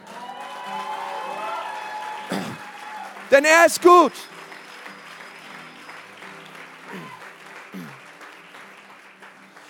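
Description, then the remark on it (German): An audience stands and applauds for Jesus, a dense wash of many hands clapping that runs throughout, while a man speaks loudly over it in short bursts. “Komm, lass uns gemeinsam aufstehen und diesem Jesus mal einen Applaus geben.”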